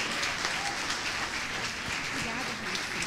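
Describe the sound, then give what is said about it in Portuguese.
A church audience applauds Jesus after a worship song, a dense, even wash of many hands clapping at once that holds a constant level throughout, with a faint murmur of voices underneath. “Aplauda Jesus.”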